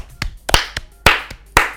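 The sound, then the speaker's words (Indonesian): Scattered clapping: about seven sharp, crisp claps at an uneven rhythm, a few of them louder than the rest. No voices are heard. “oke okay, tepuk tangan dulu”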